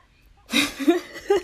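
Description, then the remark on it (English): A person imitates a child's chesty, wet cough: after a brief silence, a rough burst followed by a few shorter, throaty hacks, fairly loud. “It's like you're six years old coughing. Like you could clearly hear them like breaking like something up in their chest.”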